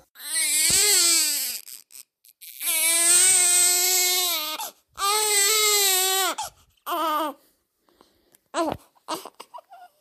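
A newborn baby girl wails in several long, strained bursts with short gasping pauses between them, loud, trailing off into brief whimpers near the end.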